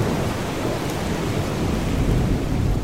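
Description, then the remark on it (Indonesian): Heavy rain pours steadily outside at night in Jakarta while a deep, low rumble of thunder rolls underneath, a continuous dense wash of sound with no voices. “lemes banget sih gue udah capek sih hujan lagi di luar”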